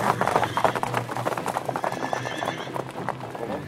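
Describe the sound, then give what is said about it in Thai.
Horses gallop through a leaf-filled stream in a rapid, continuous drumming of hooves, fairly loud, with a brief whinny mixed in among the pounding beats. “พวกมันได้วิ่งเหาะเหาะเหาะผ่านลำห้วยที่เต็มไปด้วยใบไม้ และทำอะไรก็ได้ตามที่ต้องการ”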